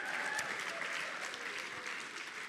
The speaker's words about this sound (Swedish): Låt applåder komma. Ordningsregel, om en applåderar, alla applåderar. Kom igen, let's go! Let's go!